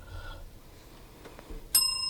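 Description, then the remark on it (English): A single bright bell ding strikes near the end and keeps ringing with a clear metallic tone, loud, after a quiet stretch with no talking; the bell is dinged at the mention of the Chicago White Sox. “if the bell is near, uh, you'll have to ding it here when I bring up the White Sox.”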